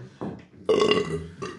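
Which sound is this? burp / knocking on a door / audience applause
burp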